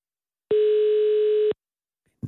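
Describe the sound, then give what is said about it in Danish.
A single loud landline ringing tone sounds for about a second as a steady, buzzy pitch, then cuts off abruptly into silence before a voice briefly begins. “Oh, jordlinje igen, kan man høre.”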